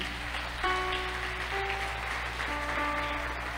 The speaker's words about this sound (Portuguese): Pode aplaudir Jesus mesmo.